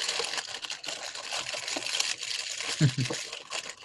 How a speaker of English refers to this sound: I like how it went to mine just because I was rolling up my cheese bag. I know, it's like it's crackle crackle.